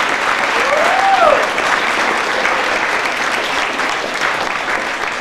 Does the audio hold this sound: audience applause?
yes